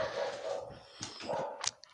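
A dog barks in the background, a few short, sharp yelps breaking through a thin, whining tone. The sounds are fairly soft and irregular, with no one speaking.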